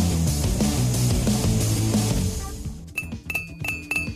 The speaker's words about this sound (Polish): Słyszycie? Tak brzmi kratka wywietrznika w samochodzie zrobiona z prawdziwego metalu. Druga. Trzecia. I czwarta.